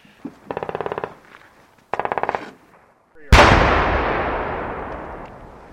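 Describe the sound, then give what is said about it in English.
Two short bursts of rapid automatic gunfire during military pre-deployment training, then a single loud blast from the demolition of unused battle simulation charges that booms and rumbles away slowly over several seconds. “Those are demolitions of uh, charges not used in the previous attack.”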